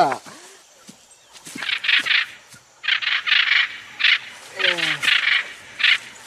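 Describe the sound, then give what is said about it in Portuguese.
A person imitates the call of a hyacinth macaw (arara azul) with a run of harsh, raspy bursts in a fairly even rhythm, mixed with a few swooping voiced squawks, moderately loud. “Arara azul.”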